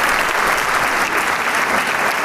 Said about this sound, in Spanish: obra de Johannes Brahms, y que el público encantado mantiene el aplauso como siempre lo hace en este recinto